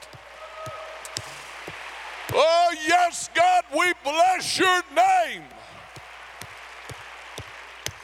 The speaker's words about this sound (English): Clap your hands and thank him for it.